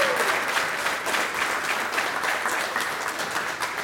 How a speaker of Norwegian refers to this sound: Ja, det kan vi ta applaus for. Det var applaus for.